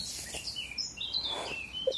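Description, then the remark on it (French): Several birds chirp and call over one another in a steady, overlapping chorus of thin, high-pitched notes, against a soft background hiss, with no one speaking. “Même la nuit, il y a, un peu moins de bruit parce que les oiseaux dorment, mais quand même.”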